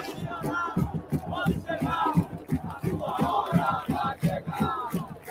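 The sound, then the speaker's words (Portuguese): A large crowd of football fans chants loudly in unison, a rhythmic mass of voices with steady pulsing beats that carries through the whole stretch without pause. “Porque eu não vi esse grito do Estado, não.”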